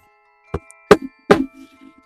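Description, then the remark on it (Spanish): Three firm knocks on a blacksmith's door at night, spaced evenly, each a sharp thud with a short ring-off, followed by faint rustling and quiet. “Una noche, el herrero escuchó golpes en su puerta.”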